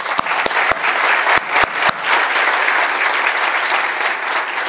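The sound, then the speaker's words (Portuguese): A church audience applauds its worship band steadily, a dense wash of applause, with a few sharp individual claps standing out near the start before it settles into continuous clapping. “Queridos, como eu disse no culto das nove, o nosso grupo de louvor merece um aplauso, não merece? Vamos lá.”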